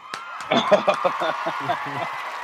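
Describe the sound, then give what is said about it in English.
A crowd cheers and claps for an angler introduced as a 2021 Bassmaster Classic qualifier, a steady wash of applause with excited voices whooping in short bursts over it, moderately loud and sustained throughout. “we got a whole crowd here.”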